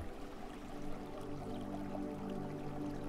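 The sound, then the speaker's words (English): A steady, rushing wash of ocean waves at moderate volume, blended with a soft, sustained musical drone, with no talking. “The sound of the waves is ever so relaxing.”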